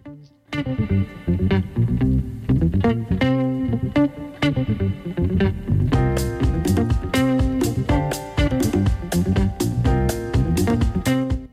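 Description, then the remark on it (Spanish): Loud, upbeat theme music of the radio program La Oveja Negra, with distorted, effects-heavy instruments over a steady driving beat; the arrangement gets fuller and busier halfway through, with crisp percussion hits. No one speaks. “Es la música que va de fondo, así que ya saben, pueden entrar a Spotify y se ven y se escuchan todo lo que ustedes quieran.”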